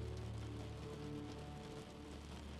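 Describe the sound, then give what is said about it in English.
Steady rain patters against a window in a continuous, even hiss of droplets, soft and unchanging throughout, with no voices or other sounds. “Relax into a position of rest as the rain begins to fall on your window.”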